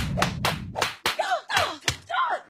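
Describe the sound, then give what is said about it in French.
A rapid series of about six sharp, loud slaps to the face, cracking one after another, with short pained gasps and cries between the later blows. “Ça se termine par des gifles.”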